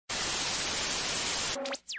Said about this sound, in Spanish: Y bueno amigos, después de esta gran interferencia técnica, pues ya amigos, lo único que queda es despedirnos.